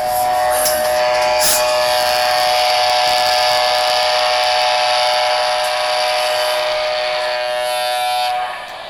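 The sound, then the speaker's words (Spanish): The horn of the icebreaker Irizar sounds a farewell at the end of its campaign, one long, loud, steady blast lasting about eight seconds, a bright harmonic tone with a hissy edge, then cuts off. No voices are heard. “Bueno, estábamos escuchando el último sonido que nos dejó el Irizar hasta que vuelva nuestro reencuentro.”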